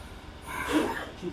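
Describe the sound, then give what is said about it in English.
A single sneeze, a short breathy burst with a sharp, hissing release that fades quickly, followed by a faint exhale. “God bless you.”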